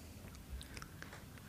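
Someone bites into and chews a crunchy snack: a few crisp, irregular crunches, fairly quiet, with no talking.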